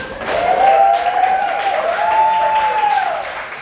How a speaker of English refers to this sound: yeah, my mom's here tonight, everyone. Clap for her.